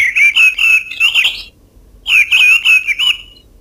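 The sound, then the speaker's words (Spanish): Mistle thrush song, unedited: two loud, clear phrases of fluty, warbling notes separated by a short pause, heard alone with no voices. “Este es el zorzal charlo.”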